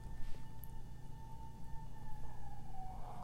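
An ambulance siren sounds from outside, a steady wailing tone that dips slightly in pitch as it passes, over a low background rumble with no one speaking.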